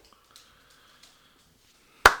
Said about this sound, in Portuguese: Pá, eu tenho que bater palmas porque foi, foi uma escolha mesmo acertada.